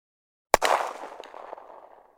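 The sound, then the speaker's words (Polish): A single sharp gunshot cracks out of silence on Ostrów Tumski in Poznań, Poland, on New Year's Eve before 1933, followed by a long, rumbling echo that rolls and fades over about a second and a half, with no voices. “Tę senną, spokojną atmosferę Ostrowa Tumskiego nagle brutalnie przerwał huk wystrzału.”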